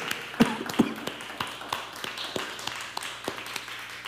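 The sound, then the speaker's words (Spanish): An audience applauds with a loose, uneven patter of hand claps, a few sharper claps standing out over a steady wash of smaller ones for about four seconds, after a call for a big round of applause for the father. “Vamos a dar un fuerte aplauso al papá, ¿por qué?”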